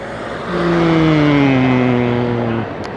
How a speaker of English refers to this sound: Uh, there's no sound effects added. This is all original sound. There's a car about to go past.